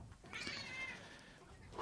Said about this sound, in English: See, when the dog hears the cat meowing like this, the dog's like, it kind of sounds like the cat's getting food because the cat goes crazy when the cat's getting food.